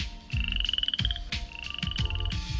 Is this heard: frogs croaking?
yes